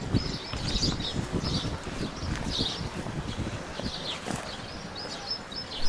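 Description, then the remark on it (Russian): Birds sing outdoors in a steady stream of high, twittering chirps and short phrases over a low rumble of wind buffeting the microphone. No one speaks. “Дорогие зрители, ну или слушатели, сейчас услышите пение птиц.”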